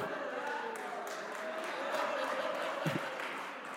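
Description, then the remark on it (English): An audience of state sports fans breaks into steady applause, a dense, continuous wash of many hands clapping with a murmur of crowd noise underneath, holding at a fairly even loudness throughout. “All the state fans erupt in, in clapping, right? That was just you state fans.”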